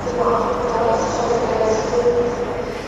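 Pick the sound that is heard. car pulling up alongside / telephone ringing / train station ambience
train station ambience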